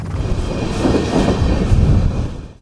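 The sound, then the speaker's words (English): A heavy coal train rolls steadily along the rails, a continuous low rumble with rhythmic clatter and metallic grinding, loud and unbroken throughout, with no voices. “Now, a prominent Canadian economist says that's leverage Canada can use if Ottawa slapped a tax on those coal trains, it might just threaten the business enough to persuade Trump to back down.”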